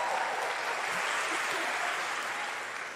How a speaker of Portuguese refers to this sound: A gente está fazendo agora, sexta-feira, 18 anos de casados, né? A salva de palmas.